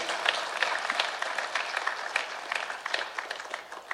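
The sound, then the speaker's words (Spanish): An audience applauds steadily for several seconds, a dense wash of many overlapping hand claps with no voices standing out. “Yo no sé dónde están, no, los oigo aplaudir, pero aquí están, gloria a Dios.”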